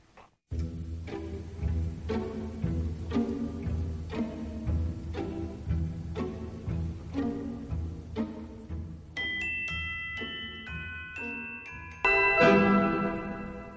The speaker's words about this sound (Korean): 지금 들려드릴 음악은 사탕 요정의 춤. 네. 아주 귀여운 음악인데 한번 들어보시죠.